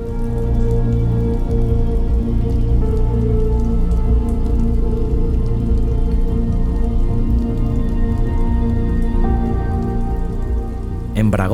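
Steady rain pours down without a break, a dense, even patter on a hard surface, with a low sustained drone beneath it and no voices.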